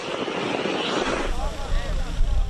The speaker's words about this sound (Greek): Στην Κροατία, πυροσβεστικέ δυνάμει δίνουν μία άνηση μάχη για να περιορίσουν την πυρκαγιά σε περιοχή νότια του Ντουμπρόβνικ στην Αδριατική, καθώ ισχυροί άνεμοι εμποδίζουν τα πυροσβεστικά αεροσκάφη.